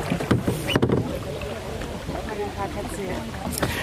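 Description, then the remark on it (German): A wooden punt boat, a third boat coming along, passes by on the water in the Spreewald, with soft splashing and a few knocks of wood early on, while people talk quietly in the background. “da kommt noch ein drittes Boot.”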